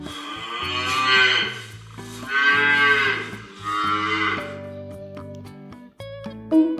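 An ox moos three times in a row, each call long, loud and drawn out, over a light, steady musical backing that carries on after the lowing stops.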